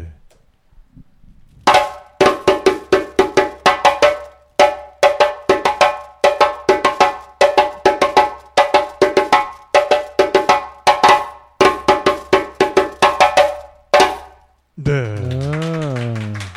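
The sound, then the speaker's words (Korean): A West African djembe plays a steady, repeating accompaniment rhythm of sharp slaps and tones, loud, with a metallic bell-like ring through the hits, ending as a voice begins speaking. “어, 굉장히 유명한 리듬이어서 젬비하는 사람이 만약에 이 리듬을 모른다 네. 그러면 젬비를 전혀 모르는 거나 마찬가지예요.”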